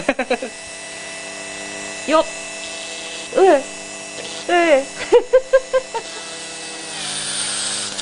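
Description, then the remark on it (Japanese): A steady, high electric hum from a small pen-like burning tool, held like a pen, runs throughout as it burns a hole into a gourd about 3 mm thick, with brief excited exclamations over it and a soft hiss near the end. “はいじゃあちょっと穴を開けます、はい、ひょうたんに穴を開けます、はい、ドキドキする”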